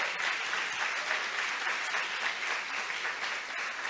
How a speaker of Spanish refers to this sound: Porque un aplauso, Señor, por la vida de los pastores, por todo el trabajo que hacen. Gracias por todo.